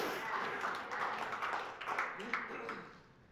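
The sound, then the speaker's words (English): An audience claps steadily for a few seconds, a dense patter of many hands with a murmur of voices mixed in, fading slightly toward the end. “That's the miracle of prayer, worth more clap than that.”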